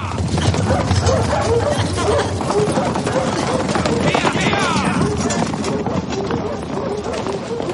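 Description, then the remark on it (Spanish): Horses' hooves trample a path close to Rul, who lies on it, in a dense, continuous clatter of overlapping beats that stays loud throughout, with indistinct voices and other noises mixed into the din. “Los caballos pisan cerca de Rul.”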